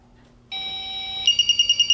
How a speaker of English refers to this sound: Pressing the smart button will sound the ringer tone currently in use.